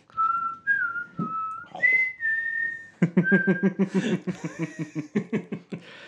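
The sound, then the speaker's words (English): A person whistles a short, bright Jeopardy-style quiz-show countdown melody with a few sliding notes for a Harry Potter house quiz, then breaks into rhythmic laughter that takes over the second half. “yes, we have our own Jeopardy music for this episode.”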